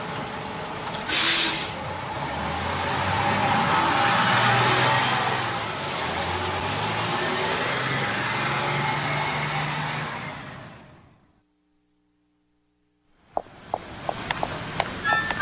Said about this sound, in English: The buses.